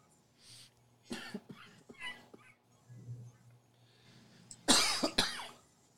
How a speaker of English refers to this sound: The COVID cough. The COVID cough. it's killing me.